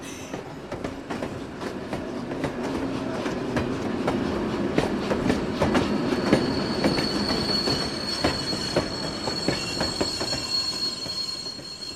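A train rolls past, its wheels rumbling steadily with rhythmic clacks and a high metallic squeal running over the top, the noise holding loud for the whole stretch before easing slightly.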